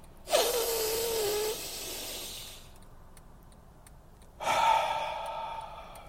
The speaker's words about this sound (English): It's important that you breathe. If you think about it, it's really important that you breathe. All right, here we go. Breath number one. Go.